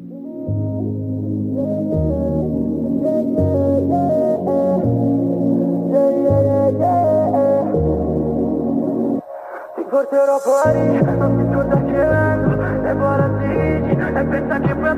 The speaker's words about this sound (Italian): Ragazzi, io vi ringrazio tantissimo per essere stati qui, eh, veramente complimenti per questo singolo che adesso ci andiamo ad ascoltare. Vamos.